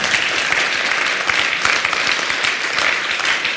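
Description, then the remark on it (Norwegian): A crowd applauds steadily, a dense, continuous patter of many hands clapping, sustained at an even loudness without pause or voices, applauding the musicians who played in worship. “Jeg syns vi kan gi musikerne en skikkelig klapp.”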